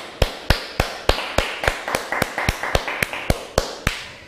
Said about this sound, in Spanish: Nos están viendo en Japón. Sí. Dices que hay una persona o dos que nos están viendo en Japón. Vamos a darle un fuerte aplauso a Japón.